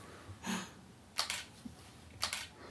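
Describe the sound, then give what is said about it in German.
A camera shutter clicks in quick bursts as photos are taken, three sharp snaps, each one a fast double-click, spaced about a second apart, with no talking. “Funktioniert die Kamera jetzt? Mhm. Alter, Alter, ist die schnell.”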